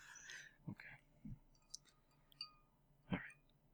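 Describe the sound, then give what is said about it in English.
Sipping of whiskey, with a few soft slurps and wet mouth clicks spaced unevenly over a few seconds, quiet with no talking. “Oh, do you have to take a sip of whiskey before you can start swearing?”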